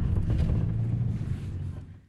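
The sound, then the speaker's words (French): Strong wind buffets the microphone outdoors in a Castorama store parking lot on a sunny day, a steady, loud low rumble with gusty fluctuations that eases slightly toward the end, with no voices present. “Il fait beau, mais il y a beaucoup de vent.”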